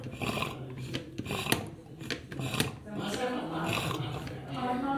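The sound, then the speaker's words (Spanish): Clatter and hollow rasping of an empty coffee thermos, kept to hold hot coffee for an evening class, being tipped and pumped over a cup, with several sharp clicks and airy sputters but no liquid flow, while a voice murmurs briefly. “así que a esta hora hay un termo que conserva el café caliente. Vamos a ver si todavía queda café.”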